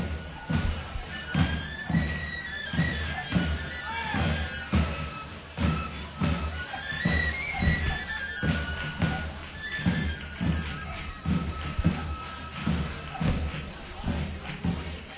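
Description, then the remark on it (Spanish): A group of tamborileros (procession drummers) approaches the doors of the Blanca Paloma portal number one, playing a steady, driving beat of loud thumps that continues throughout, with a thin high melodic line and crowd murmur woven over the rhythm. “Así que de nuevo el, grupo de tamborileros se acerca hasta sus puertas también.”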